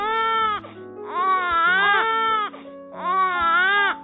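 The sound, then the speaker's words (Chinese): A newborn baby wails in three loud, high-pitched bursts. Each cry rises and falls, with short breaths between them and no other voices. “当你抱着宝宝的那一刻，疼痛很快就会过去了，变成回忆的一部分，而你的宝宝立刻就会开始嚎啕大哭。”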